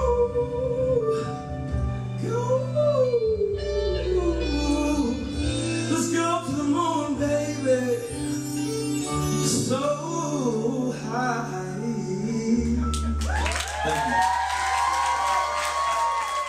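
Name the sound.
crowd cheering and whooping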